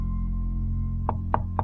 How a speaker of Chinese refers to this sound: 一阵轻微而急促的敲门声打断了我的思路。我看了一下墙上的时钟，十二点三十七分了。这么晚，会是谁呢？屋外无人应答，可是敲门声很快又响了起来。